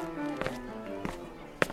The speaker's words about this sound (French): Et comme je vous l'ai dit, la musique et les sons font vivre la ville trépidante qu'est Main Street USA. On entend des bruits de pas, des gammes de piano qui s'échappent des étages des habitations, et parfois des sons plus particuliers que d'autres.